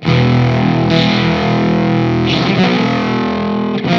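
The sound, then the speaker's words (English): Heavily distorted bass chords ring out loud and sustained, with a couple of fresh strums partway through; the dense, squashed tone swells and dips like a compressed, ducking effect, with no voices. “when you're uh, actually striking chords on the on the bass strings, it feels like it's almost um, what do you say, compressed, but it's yeah, like ducking almost.”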